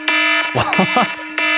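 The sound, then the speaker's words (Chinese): A harsh, buzzing phone alarm tone, used as a morning wake-up alarm clock sound, sounds loudly in two bursts at a steady pitch, broken by a short stretch of someone talking in the gap. “我是这个， 直接警报。”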